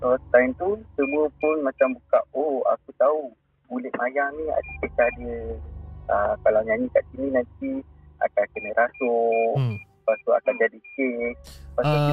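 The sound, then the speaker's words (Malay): A detector device gives off repeated short, high electronic ticking beeps in small bursts as it detects something in front of it. They sit faintly beneath people chatting almost continuously throughout. “Itu bunyi apa lah yang tik tik tik tu Dia bunyi detect Ada benda dekat dekat depan”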